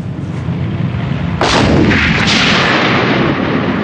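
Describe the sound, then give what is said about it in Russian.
Reservists' artillery battery firing at the lead vehicle during military training: a heavy boom bursts in around the midpoint, followed by a second report and a long rumbling roar over constant loud background noise. No voices. “Их артиллерийская батарея успешно выполняет поставленную задачу, но, будучи обнаруженной противником, оказывается уничтоженной – и друзья по приказу командования как бы умирают.”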